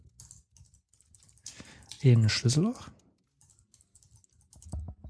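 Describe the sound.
Soft, rapid computer keyboard typing clicks patter steadily, pausing briefly while a man speaks a short phrase, then resuming with a few louder keystrokes at the end.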